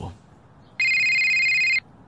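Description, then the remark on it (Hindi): A telephone rings once with a call from the superintendent, a loud, steady electronic trill lasting about a second, with a brief low murmur just before it and quiet afterward. “अगले दिन मुझे सुपरिटेंडेंट का कॉल आया”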